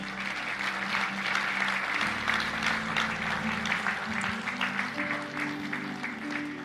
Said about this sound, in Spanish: Dele un fuerte aplauso al Rey.